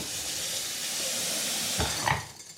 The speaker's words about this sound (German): Dann würde ich sagen, kann das jetzt einfach in einen Topf und da kommt jetzt kaltes Wasser drüber.